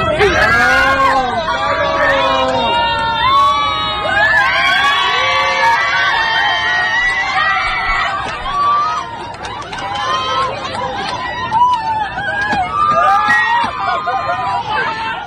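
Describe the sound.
Passengers in a packed airplane cabin erupt in loud cheering and excited shrieks, a sharp scream rising above the continuous crowd hubbub, with a thud underneath as a flight attendant opens the bathroom door, and overlapping voices shouting and laughing throughout.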